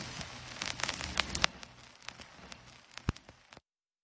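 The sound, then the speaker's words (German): Steady, dense rain pours down, a constant hiss broken by sharp drops and splatters hitting a surface, before cutting off abruptly near the end. No voices. “Der Oktober bleibt kalt und nass bei 12 Grad und ergiebigem Regen.”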